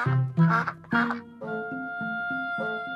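A duck quacks three times in quick, loud, raspy bursts, then stops as a steady plucked melody of sustained musical notes begins and carries on alone.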